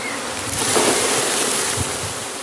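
A dense, roaring buzz of a honeybee swarm fills the air as the bees are shaken down from a tree branch into a plastic crate for the second time, with a few soft thumps beneath the steady hum.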